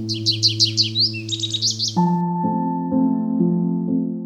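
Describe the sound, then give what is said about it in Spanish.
A goldfinch sings a quick series of bright, twittering trills for about two seconds over a soft sustained musical drone, then the bird falls silent as gentle melodic notes carry on. “Al verlos, el jilguero cantaba. Intentaba alcanzarlos con su trino, con sus gorgoritos, y cuanto más preso se sentía, con mayor alegría cantaba.”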